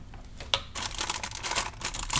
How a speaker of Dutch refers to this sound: Ook oh, ik doe mijn horloge om.